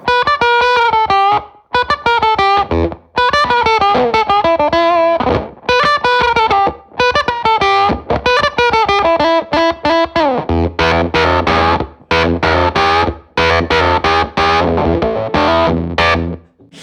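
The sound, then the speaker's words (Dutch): An electric guitar played through an octaver pedal, distorted notes stacked with an added octave. A melodic run turns into heavier, chugging low riffs toward the end. No one speaks. “Octavers, die doen het eigenlijk het meest in het midden van de hals.”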